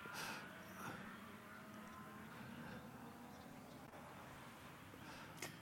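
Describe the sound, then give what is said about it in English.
A race car, the Superglass Racing Matt Stone entry driven by John Hollinger, running 21st overall and second in class in a sprint race, roars steadily as it drives past, a sustained, buzzing drone with rushing road and wind noise and a brief sharp flare near the end. “Uh, that is the Hollinger car.”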